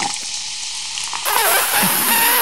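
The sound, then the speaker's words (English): A steady hiss of fizzing erupts partway through as vinegar is poured onto baking soda, the bubbling fizz loud and continuous, with liquid splashing and no voices. “baking soda and vinegar, like those old science experiments.”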